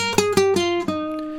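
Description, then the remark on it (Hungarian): An unamplified guitar, played acoustically into a microphone without any amplifier, plays four plucked notes in quick succession, each ringing on with bright overtones, fairly loud, with no one speaking. “Nos tehát, így szól magában,”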